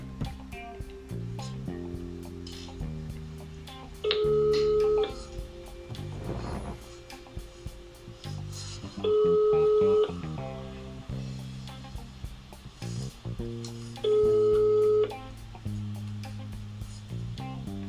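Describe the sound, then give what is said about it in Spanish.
A telephone ringback tone sounds three times, each ring about a second long and spaced roughly five seconds apart, over a continuous melodic background, during a call to the tourist agency Saguaigo, with the operator slow to answer. “Aquí la primera observación que se le hace al cliente en la auditoría es que la operadora demora mucho en contestar la llamada.”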